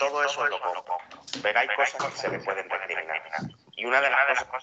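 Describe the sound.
A man talks steadily in Spanish while his voice seems doubled, with a second copy and an echo smearing each phrase. The speech is fairly loud and unbroken, with only a brief dip near the end.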